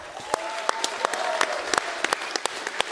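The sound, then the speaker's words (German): An audience gives a short round of applause for the man who made the event possible, many hands at once with sharper individual claps popping out of the dense wash; the applause is moderately loud and continues throughout without any talking. “Jetzt machen wir mit den kurzen Applaus für den Mann, der das Ganze hier überhaupt möglich gemacht hat.”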